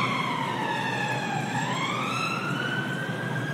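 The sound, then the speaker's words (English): An emergency vehicle siren wails steadily on a London street near St Pancras, its pitch sliding down and then climbing again, loud over a constant rumble of city street traffic. “Oh, quite a lot of sirens today, and I can see the Great Northern Hotel to the left, which feels just out of another era, and the St Pancras Hotel, and suddenly, and then behind us, you know, siren, a betting shop.”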